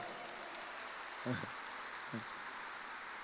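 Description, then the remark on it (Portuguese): Soft, steady applause from a church audience, a dense even patter of clapping that holds throughout, with two brief vocal sounds rising above it. “Vamos aplaudir esse querido aqui, ó.”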